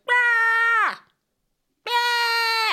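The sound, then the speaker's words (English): A voice imitates a woman screaming nonstop: two loud, sustained, harmonically rich shrieks, the first trailing off with a downward slide, then a pause of silence before the second begins, intense. “Um, so they were just like screaming and hollering, and it didn't even stop.”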